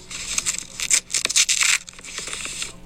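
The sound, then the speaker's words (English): A single sheet of paper is pre-torn, Nancy Pelosi style, in several crackly, ripping bursts. The loudest rip comes in the middle, then a quieter tear follows, with no talking. “That's our Nancy Pelosi pre tear the sheet of paper.”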